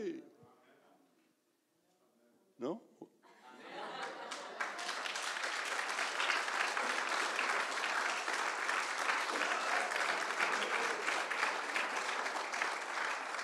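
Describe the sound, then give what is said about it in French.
A church audience breaks into sustained applause for the Lord after a brief voice, the dense clapping swelling quickly and holding steady and loud for about ten seconds. “De louer Dieu, de lever les mains, puis d'applaudir le Seigneur.”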